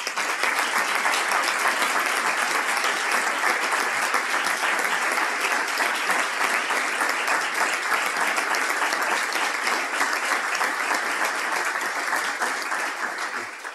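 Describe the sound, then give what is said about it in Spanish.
Sustained audience applause for Blanca Fernández Ochoa, a dense, steady wash of many hands clapping at even loudness for about fourteen seconds, easing slightly at the very end, with no voices over it. “y por favor les pido un aplauso para Blanca Fernández Ochoa.”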